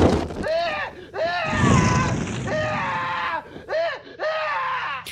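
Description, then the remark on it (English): A man screams in agony in several long, wavering wails, loud, over a low roaring rumble like flames burning around him, after a lit lighter is thrown on him. “Virat took out his favorite lighter and lit it and threw it on the screaming man.”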